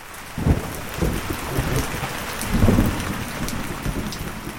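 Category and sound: nature, heavy rain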